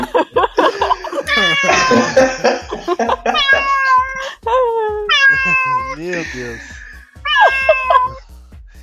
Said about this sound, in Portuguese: Se era o gato dele. Não é, é um gato, um gato muito curioso.